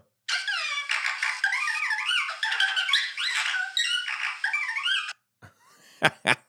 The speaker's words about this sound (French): dans l'introduction des Dan News aujourd'hui, euh, nous avions euh, le robot R3 qui euh, nous a dit dans son langage que nous étions le mardi 9 avril 2019.